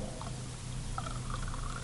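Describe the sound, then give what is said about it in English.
Liquid is poured steadily from a cup for a couple of seconds, a continuous splashing trickle with no voices. “Then he took the cup and pouring it out, he said, This is the cup of the new covenant in my blood”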